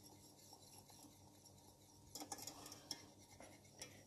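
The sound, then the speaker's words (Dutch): Whisking cream in a pan: after a quiet stretch, a metal whisk starts scraping and clicking rapidly against the pan as the cream is warmed to melt cheese in it, a busy, fairly soft clatter over a steady background hiss. “Nou, eventjes eh, Flink roeren met die garde en dan...”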